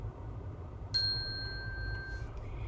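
A single bright page-turn chime from a read-aloud of the picture book Hello, Hippo! Goodbye, Bird by Kristyn Crow rings out clearly, its pure tone sustaining for over a second before fading, over a low background rumble with no talking.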